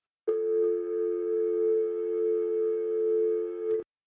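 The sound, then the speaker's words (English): The call tone of an unanswered telephone call hums steadily for about three and a half seconds, one unbroken, loud electronic drone that then cuts off, with no voices. “Answer your goddamn phone.”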